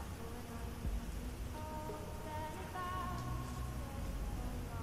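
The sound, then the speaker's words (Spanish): Steady rainfall patters softly and continuously outside, a dense hiss of drops, with faint sustained musical tones drifting underneath and no voices. “Escuchan que afuera está lloviendo.”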